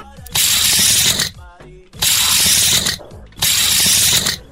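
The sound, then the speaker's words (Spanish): Three loud, rattling whirs of a tape measure retracting after being let go, each lasting about a second, with a brief ratcheting buzz and click between them and no talking. “Es una cinta de medir y se acaba de ganar 800 dólares con el sonidito.”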